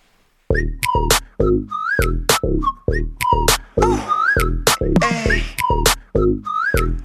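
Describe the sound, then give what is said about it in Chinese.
A pop song's whistled hook: short, bright whistle phrases with swooping glides repeat over a loud, punchy beat and dense backing music, with no talking. “嗯，真的是，嗯，刚才说的一样啊，那口哨部分真的是太帅了，嗯。”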